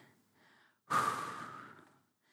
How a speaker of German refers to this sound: Was macht der Mensch in dem Moment? Der Mensch atmet ein und dann